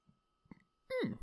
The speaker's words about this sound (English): big burp. Excuse me.